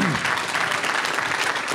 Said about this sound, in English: Coach, we appreciate you being here okay. and uh, appreciate all your time and everything you've done. And would you all give him one more round of applause?